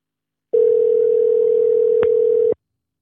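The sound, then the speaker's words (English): One steady, even ringing tone of an outgoing telephone call, heard through a Bluetooth connection, sounds for about two seconds, clear and fairly loud with no voices, and a faint click comes just before it cuts off. “This time we're gonna do it uh, so he can see a number. Still probably won't answer, but let's give it a shot for the hell of it.”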